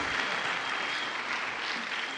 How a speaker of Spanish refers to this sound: Un aplauso para mi esposa, una pausa.